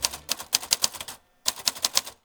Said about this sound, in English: We write custom, on the spot poems on vintage typewriters.